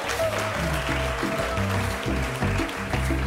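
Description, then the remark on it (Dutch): An audience applauding steadily throughout as 300 sushi from a sushi restaurant in Roelevangersveen are brought in, a dense wash of clapping mixed with loud music that has a stepping bass line and sustained tones. “Applausje de zaal in, de sushi uit Roelevangersveen. Ja, groot applaus.”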